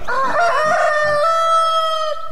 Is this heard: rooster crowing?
yes